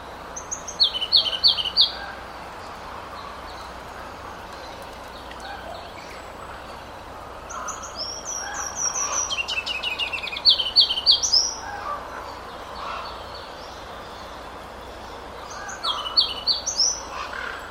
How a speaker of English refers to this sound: once again, that was a Ruby Crown Kinglet. That one recorded at Totem Park in the springtime. So you might have heard some of the ravens that are pretty common down there uh, calling in the background.